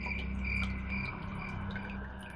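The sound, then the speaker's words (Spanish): Steady outdoor insect chorus of crickets and cicadas around a house at night, with continuous shrill chirping and buzzing layered over a low background rumble; no voices. “Los numerosos ruidos provenientes del interior de la casa, combinados con el canto de los grillos y las chicharras, generaban una sensación de peligro que impedía pensar en cualquier otra cosa.”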